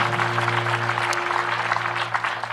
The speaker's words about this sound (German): Habt ihr einen Applaus für die Worshipper? Das war richtig großartig.